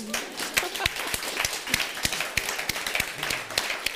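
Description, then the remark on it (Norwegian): Scattered hand claps from a small group applauding a book, sharp irregular slaps over a steady rustling wash of applause, moderately loud, with no talking. “er det applaus verdig?”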